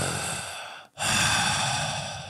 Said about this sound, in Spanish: profunda, bien honda, talando el aire, eso, inflarte y desinflarte, poquito más profundo, una respiración jadeante, intensa,